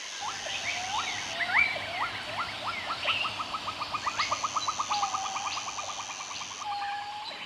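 Several birds sing at once outdoors, with rising whistled notes, quick repeated chirps and a steady high trill layered together at moderate volume, continuous throughout with no voices.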